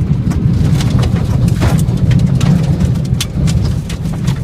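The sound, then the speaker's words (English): Heavy rain from a tornado storm pounds steadily against a surface while a deep, constant roar of wind rumbles underneath, with sharp gusty crackles, a loud storm and no voices. “That's so the tornado video.”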